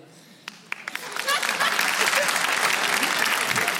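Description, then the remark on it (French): Applause from an audience, answering whether they would be up for going to war to defend the country, starts with a few scattered claps, then swells into dense, steady clapping that holds at full strength to the end. “Par applaudissement, qui serait chaud pour y aller là”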